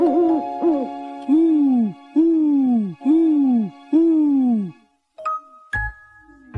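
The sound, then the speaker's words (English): A voice imitates an owl, giving about six drawn-out, falling "hoo" calls in a steady rhythm, fairly loud, followed by a few bright chiming tones. “He can go like an owl.”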